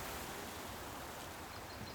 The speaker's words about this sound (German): So ist es am Meer. Nur Wasser und, und Wellen und Weite, Wind.